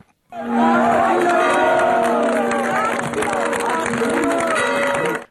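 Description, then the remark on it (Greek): A large crowd of faithful shouts "Axios" together in a sustained, loud wave of acclamation as the new Archbishop, Georgios, former Metropolitan of Paphos, enters the old Cathedral of Saint John; many voices overlap into a continuous roar that holds steady for several seconds before cutting off. “Ο νέο προκαθήμενο τη Εκκλησία εισήλθε εντό του παλαιού καθεδρικού ναού του Αγίου Ιωάννη με του πιστού να φωνάζουν άξιο.”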